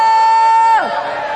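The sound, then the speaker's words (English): An audience shouting for joy: one loud, high, sustained whoop that holds steady and then slides sharply downward in pitch, over a bed of crowd noise and cheering. “Let's practice shouting for joy right now.”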